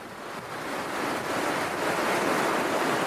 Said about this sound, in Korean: 자, 이 중에 정답은요. 제 고향 부산 3번 해운대 파도 소리였는데요.